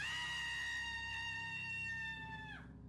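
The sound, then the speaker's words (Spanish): A long, piercing death scream like a woman's, given by a viper as its head is cut off with a machete, holds one high, steady pitch for over two seconds, then suddenly drops and chokes off. It is loud, with no talking. “Fue un aullido humano, un grito de mujer que le puso los cabellos de punta.”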